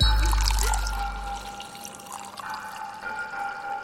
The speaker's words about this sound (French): on se sert un petit verre de la quatrième bouteille au programme qui a le nom le plus long du monde